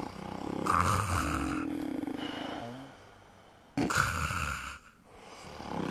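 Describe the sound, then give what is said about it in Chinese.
Loud, rasping snoring: two long, rough snores, each a raw rattling drone with a grumbling low undertone, separated by a quieter breath, with no talking. “他侧耳一听，全家都已经睡得是鼾声如雷。”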